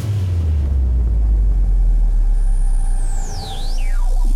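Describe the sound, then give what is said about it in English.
A spaceship takes off after a three, two, one countdown: a loud, steady, deep roar fills the whole clip, joined near the end by a high whining tone that slides down, briefly up, then down again. “locking down the main bridge. Prepare for takeoff. Three, two, one.”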